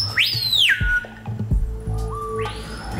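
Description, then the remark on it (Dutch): A screaming piha gives a loud, piercing call with a sharply rising then falling whistle, followed by a second ringing note, set against a busy forest background of softer calls and low rumble. “Daarmee is hij dubbel zo luidruchtig als zijn naaste concurrent, de schreeuwpia.”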